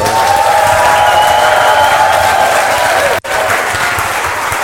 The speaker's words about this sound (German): Applaus, Applaus. yeah, Applaus, yeah. Applaus, Applaus, Applaus. Juhu. Applaus, Applaus. Der Saal war außer sich, außer Rand und Band. Einfach eine tolle Stimmung vor Ort.